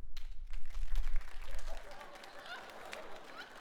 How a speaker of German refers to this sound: Einmal in die Hände klatschen, der heute noch, also der von seinem Partner dahin gesteppt wurde und noch nie was von Alliteration am Arsch gehört hat.